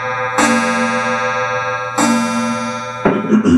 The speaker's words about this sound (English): Hello, clock.